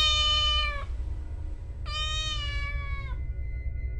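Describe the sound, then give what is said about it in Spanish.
A cat, heard from inside a tomb, lets out two long, high-pitched wailing meows, the second drawn out longer and sagging in pitch at the end, over a steady low rumble. “cesado el eco de mis golpes cuando una voz respondió desde dentro de la tumba, un quejido sordo y entrecortado al comienzo, semejante al sollozar de un niño, que luego creció rápidamente hasta convertirse en un largo y agudo continuo alarido anormal.”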